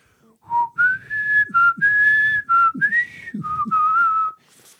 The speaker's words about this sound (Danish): Programmet det var sådan lidt øh, mystisk i tonen og havde den her ikoniske titelmelodi.